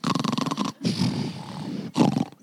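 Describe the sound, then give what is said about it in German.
A voice imitates loud snoring: a rough, rattling inhale followed by a longer, gravelly growl, then another harsh snort starting, all forceful. “And they were snoring, I'm sure.”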